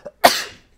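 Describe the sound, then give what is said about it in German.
A single sharp sneeze bursts out after a brief inhale, with a bright, breathy spray of noise that fades within about half a second. “Also wirklich, Gesundheit.”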